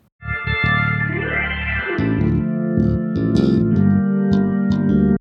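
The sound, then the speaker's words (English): A quick organ glissando, a hand sweeping up and back down the keyboard over sustained, buzzy organ chords, followed by a steady run of loud chord stabs lasting about five seconds with no voices. “For this organ part, I felt a sweep an up down sweep using the hand on the keyboard, which is called a glissando, would work quite well to really bring up the mood.”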